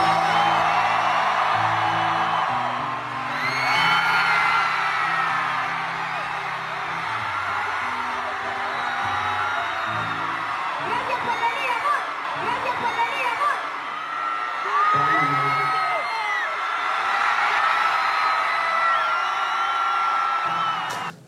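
A large concert crowd screams loudly and continuously as two singers kiss on stage, a dense wall of high-pitched shrieks and cheers with whoops rising and falling throughout, sustained for the whole stretch.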